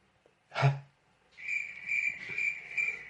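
insect, cricket chirping

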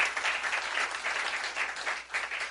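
crowd, audience applauding loudly

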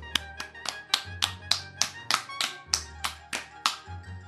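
crowd, applause

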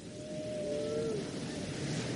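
animal, whale song

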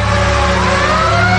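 vehicle, ambulance siren

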